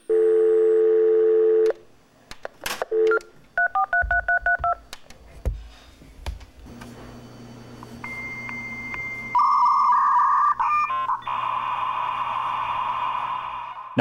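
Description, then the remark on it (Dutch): A dial-up modem connecting over an old-fashioned telephone line: a steady dial tone, a quick run of touch-tone dialing beeps, then screeching handshake tones and a loud hissing static burst. “Want het was de tijd dat je nog met een modem inbelde op een ouderwetse telefoonlijn.”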